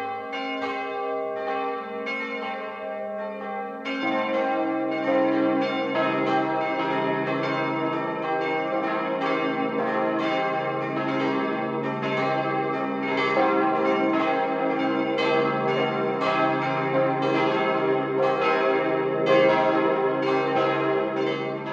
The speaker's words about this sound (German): Es ist 12 Uhr. Das Mittagsläuten kommt heute aus Fronten.